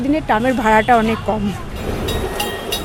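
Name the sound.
tram running on rails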